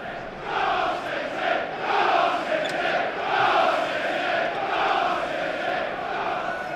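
A large crowd of Manchester City football supporters chants in unison inside a packed section of a stadium, a dense, rolling roar of many voices that swells and dips steadily over several seconds.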